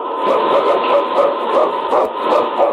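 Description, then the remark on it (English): Husky sled dogs, including King, the lead dog of Sergeant Preston of the Northwest Mounted Police in Challenge of the Yukon, bark excitedly in a rapid, continuous chorus, overlapping yelps coming every fraction of a second, loud with a thin, old-recording tone. “It's King, swiftest and strongest lead dog of the North Country, blazing the trail for Sergeant Preston of the Northwest Mounted Police in his relentless pursuit of lawbreakers.”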